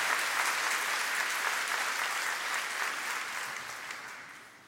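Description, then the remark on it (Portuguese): An audience applauds the Lord steadily, a dense wash of many hands clapping at a moderate level that stays even and then slowly tapers off toward the end, with no voices standing out. “Nós estava de palmas ao Senhor.”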